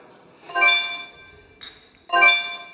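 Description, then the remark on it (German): Glasses clink together as the two team leaders toast: two bright ringing chimes about a second and a half apart, each with a lingering shimmer, plus a soft tap in between. No talking. “Ihr dürft auch gerne noch zusammen anstoßen, wenn ihr möchtet.”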